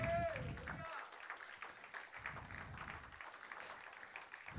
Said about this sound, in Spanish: ¿Cuántos dicen amén? Denle un aplauso a Cristo. Aleluya.